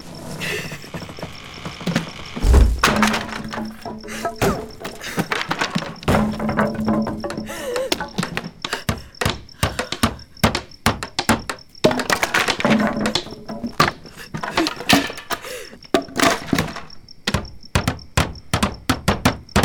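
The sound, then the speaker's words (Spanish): Boards being hammered onto the door of a hut (jacal) to shut a woman inside: a long run of sharp, irregular knocks and thuds, loud and steady, mixed with wooden creaks and clatter, with no voices. “Pongan un par de tablas en su puerta.”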